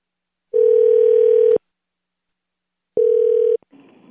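A telephone line ringing tone on a call to a Hilton Garden Inn hotel: two steady, buzzing electronic bursts, the first about a second long, then a pause and a shorter second burst, followed by faint line noise.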